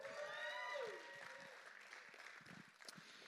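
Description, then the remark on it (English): An audience at a church service bursts into sustained applause for Jesus Christ, a dense wash of many hands clapping, with a few whoops and cheering voices rising at the start before the clapping settles and continues steadily. “Let's give it up for Jesus Christ.”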